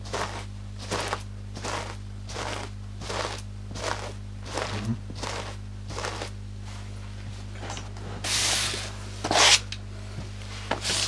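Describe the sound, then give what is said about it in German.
Foley footsteps crunching softly through light snow, about a dozen evenly paced steps with a crisp, squeaky texture, ending in a couple of louder, scuffing crunches over a low background hum. “Oder es liegt nur ein bisschen Schnee.”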